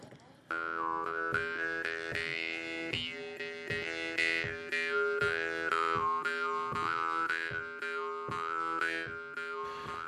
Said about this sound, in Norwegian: Så satt vi der, i Kvinnegardslia i Øvre Ål, mens vi hørte på veisjefen spille munnharpe.